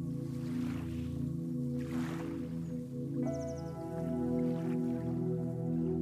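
Gentle lake water sounds, soft washes and lapping rising and falling every second or two, blended with a steady, sustained musical drone. No voices.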